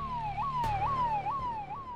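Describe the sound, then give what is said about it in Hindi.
A police siren wails in a fast, repeating up-and-down yelp, cycling about four times over a low background rumble, with no voices present. “हमारे वहां से निकलते ही हमें पुलिस के सायरन की आवाज आई”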